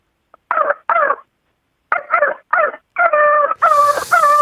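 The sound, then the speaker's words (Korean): A person imitates a small dog barking: quick bursts of high, nasal yips in short clusters, then a few longer drawn-out yelps, fairly loud with no other talk. “작은 게, 작은 게.”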